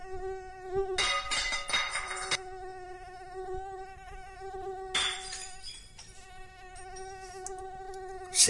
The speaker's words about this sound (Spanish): al mosquito aquel que todas las noches lo tenía en vela